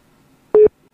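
signal or alarm, telephone call ringing tone

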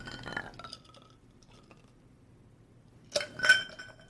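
household object, glass clinking

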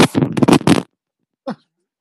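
human body sound, sneeze

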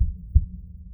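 human body sound, heartbeat

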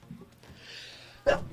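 human body sound, sneeze

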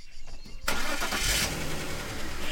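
vehicle, car engine starting

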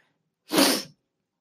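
human body sound, sniffling

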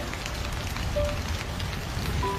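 nature, heavy rain falling

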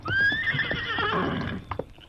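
animal, horse whinnying

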